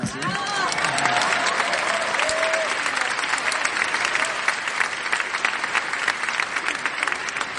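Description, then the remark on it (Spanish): An audience applauds steadily for several seconds, a dense wash of many hands clapping at a constant loudness, with a brief voice or whistle-like tone early on. “Si quieren aplaudir, aplaudan, si no, no, no.”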